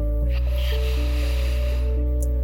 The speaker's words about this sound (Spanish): Tomo una respiración profunda.